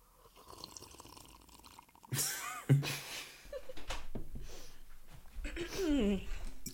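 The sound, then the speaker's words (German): Tea is poured into a cup, a steady trickling splash with drips that begins partway through and continues to the end, while people talk quietly over it. “Spilling, spilling the tea. Bisschen ASMR.”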